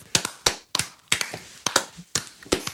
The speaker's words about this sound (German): Oh Applaus, Gott. Applaus